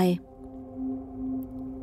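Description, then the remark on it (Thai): A dog howls in one long, drawn-out wavering note that swells twice and is sustained, following a brief sharp sound at the very start. “หมาหอนสำทับอีก”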